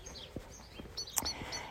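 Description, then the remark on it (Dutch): Small birds chirp close by in quick, bright bursts, several short high tweets scattered over a quiet outdoor background with no talking. “En ehm, ja, ik denk dat jullie die vogeltjes trouwens ook echt heel erg horen. Luister maar, het is echt...”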